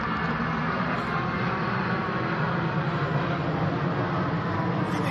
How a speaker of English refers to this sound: They, they come in groups. Fucking the most annoying thing ever. I just hate it here. Anyway, now that the plane's gone.